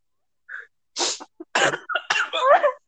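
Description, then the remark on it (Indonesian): A person lets out a quick run of harsh, breathy coughing bursts, about five in under three seconds, loud and uneven, with no talking. “Batuk.”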